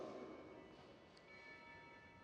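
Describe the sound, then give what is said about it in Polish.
A small bell rings faintly, its thin metallic tones lingering steadily through the moment with no one speaking, against a quiet hum. “Jakiś dzwonek?”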